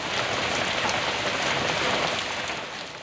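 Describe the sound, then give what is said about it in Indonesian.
Steady rain pours down continuously, a dense hiss of countless drops striking a surface, fairly loud throughout with no voices. “Aku berharap hujan seharian ini membuat banjir di beberapa tempat.”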